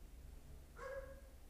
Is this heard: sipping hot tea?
no